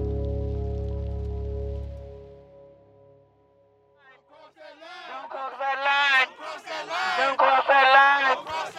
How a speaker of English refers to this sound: In Memphis, skateboarders, students, activists, and families shouted from the rainy, cold streets for days in a row to demand justice for Tyre.